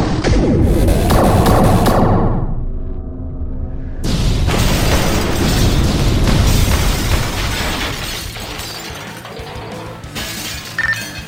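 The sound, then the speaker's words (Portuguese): A loud weapon blast, fired at locked targets after a countdown, erupts into a roaring explosion, followed by a second booming burst with crackling, shattering debris that rumbles on and slowly fades. No voices. “Alvos travados e serão levados para serem julgados por todos os crimes interplanetários que estão cometendo. Disparo em 3, 2, 1.”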